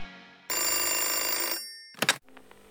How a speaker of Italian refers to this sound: È nella sua stanza a struggersi, quando d'improvviso arriva una di quelle telefonate che riescono a svoltarti la giornata.